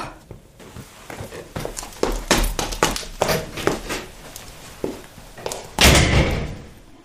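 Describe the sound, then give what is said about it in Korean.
A series of taps and clunks, like footsteps and a front door being opened as someone goes out, leads to one heavy, booming slam near the end as a heavy gust of wind blows the front door hard shut, its thud ringing out briefly. “현관문을 열고 나갔다. 무겁고 뭉근한 바람이 불어와 문을 세게 닫았다.”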